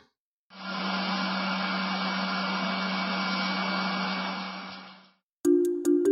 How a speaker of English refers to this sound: It is a machine, it's the sound of a centrifuge.